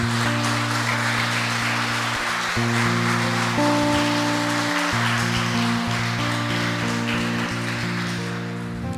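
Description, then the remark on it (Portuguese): An audience applauds God in the name of Jesus steadily for about nine seconds, a dense, hissing wash of clapping, while sustained keyboard chords play underneath and shift slowly. Nobody speaks. “Você pode aplaudir a Ele em nome de Jesus?”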